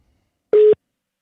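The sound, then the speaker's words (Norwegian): A single short electronic telephone tone on an outgoing phone call, a steady mid-pitched beep lasting a fraction of a second, heard clearly on its own with silence before and after. “altså skal vi rett og slett ringe til”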